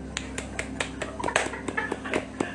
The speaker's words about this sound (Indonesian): Apresiasi, tepuk tangan.